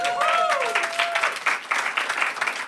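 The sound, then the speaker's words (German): A large church audience applauds the pastors steadily for a few seconds, a dense, fairly loud wash of many hands clapping, with a brief whoop or whistle rising above it at the start. “Und die haben haben wirklich mal einen Applaus verdient.”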